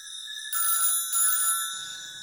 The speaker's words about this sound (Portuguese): Quando você entra, o telefone está tocando, agora um pouco mais alto. É o seu telefone. É o telefone do, do hotel, né, no caso.